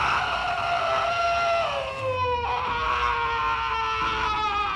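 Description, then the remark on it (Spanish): A long, piercing scream held at full volume for several seconds, its pitch wavering and dipping slightly, shrill and harmonically rich like a horror-film shriek, unbroken. “Me volvió a mirar y lanzó un grito de verdad, de película de terror.”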